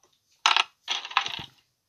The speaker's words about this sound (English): I am going to roll a dice to see if people are nice or not. Yeah, if the car is good or not.